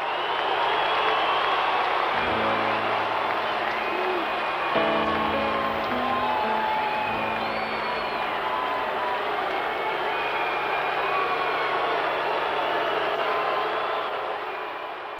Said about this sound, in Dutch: Je hoort alleen maar één grote massale boe. Dat nou, je hoort ook geklap. Ja, dat is waar. Het is eigenlijk een heel gek geluid van boe en gejuich door elkaar. En het houdt niet op.